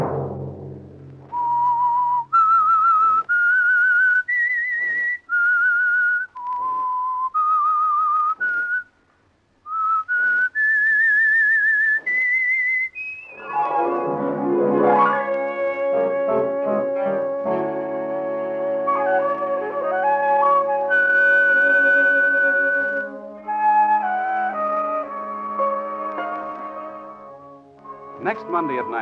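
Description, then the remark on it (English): The theme of The Whistler radio program, sponsored by the Signal Oil Company: a lone whistled melody of clear, high sustained notes rises and falls in a slow, eerie phrase, then gives way to a full orchestral swell with brass and strings. “the Signal Oil program will bring you another strange tale by the Whistler.”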